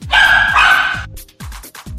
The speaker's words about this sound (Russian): почему же у Брудуна все время гавкает собака?